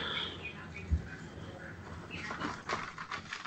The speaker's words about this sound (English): Everybody can hear my papers shuffling.